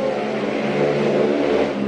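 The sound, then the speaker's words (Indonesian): A motorcycle engine drones steadily as it passes by, a loud continuous buzzing hum with a slight rise partway through. No voices are heard. “ada motor lewat”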